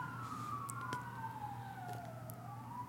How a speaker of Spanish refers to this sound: Oh, ahí va la primera ambulancia. oh, te extrañaba ambulancia de Tepic. ambulancia número 38 del día. Van varios.